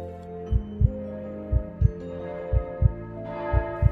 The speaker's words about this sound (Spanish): Sin embargo, poco después se despertó las campanas de la iglesia llamaban a la misa de Navidad.